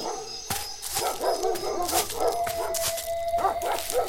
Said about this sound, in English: You hear that, Laudemia? It's them wild dogs everyone in town's talking about.